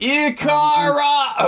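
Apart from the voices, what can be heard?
sneeze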